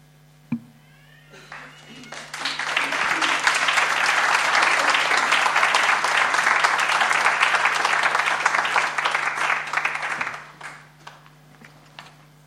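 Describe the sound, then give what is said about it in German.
A crowd breaks into sustained applause for three participants, many hands clapping in a dense, steady roar that swells after a brief tap, holds for several seconds, then tapers off into a few scattered claps. “Gebt ihnen nochmal einen herzlichen Applaus.”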